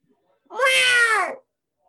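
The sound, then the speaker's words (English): A single drawn-out, high meow like a kitten's, fairly loud, lasting just under a second with a slight rise and fall in pitch, probably a human voice imitating the sound the Jags make. “They're still kittens.”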